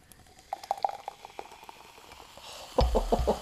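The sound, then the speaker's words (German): Soft crackling and popping like a fizzy drink, followed by a louder burst of bubbling liquid splashing, as a piña colada-flavored Coca-Cola is opened and poured. No one speaks. “Jetzt, jetzt es einen Moment ASMR. Guck mal, das ist nämlich jetzt Coca-Cola mit Pina Colada Geschmack.”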